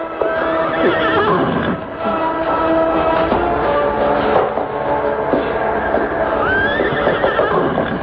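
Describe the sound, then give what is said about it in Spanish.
Exhausted horses, unable to go a step further and close to dying, neigh and whinny repeatedly, loud and continuous, with rising, wavering cries over a dense rumble and faint hoof clopping, and no voices. “Pobres caballos. Están a punto de morir.”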